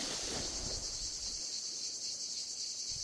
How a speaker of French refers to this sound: Erreur. On entend la cigale de l'orne, cicada orni, alors qu'on voit la cigale plébéienne, lyriste plébéus